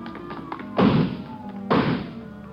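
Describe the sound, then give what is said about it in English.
Garage doors being broken through by a man being chased: two heavy, booming crashes about a second apart, loud, each trailing off into a rattling, resonant decay with no voices. “Come on, he broke through the garage doors.”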